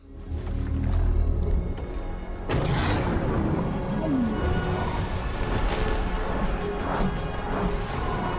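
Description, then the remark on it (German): A giant ape in a film scene roars deeply and steadily, loud, with a sudden crashing burst partway through and rumbling low-end underneath; no one speaks. “Hat der große fette Affe einfach Liebeskummer?”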